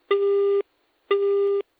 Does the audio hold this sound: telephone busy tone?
yes